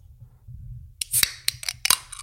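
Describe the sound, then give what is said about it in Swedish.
A can of strawberry Fanta is opened in Sweden: after a second of low background hum, a sharp metallic crack bursts into a fizzy hiss, followed by a couple more quick snaps and fizzes. “Stod det fanta med en clean strawberry. Så nu den sista i Sverige antagligen kommer här nu.”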